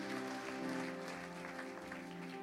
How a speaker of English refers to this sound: Happy Father's Day, dads. We love you. Yeah, they deserve a great hand clap of appreciation.